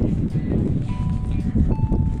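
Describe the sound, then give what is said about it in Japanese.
Footsteps of a person in sneakers walking to the office in the morning tread at a steady walking pace over a wet surface, with a continuous low outdoor wash of rain growing heavier and faint tonal hums in the background. “私会社に向かって歩いているところなんですけれども、えー、天気予報では曇りだったんですが外に出てみたらね小雨が降っていて、えー、慌てて、えー、傘を持って出かけましたちょっとずつね歩いてると雨が強くなってきてえースニーカーを履いてるので大丈夫かなとちょっと心配をしています”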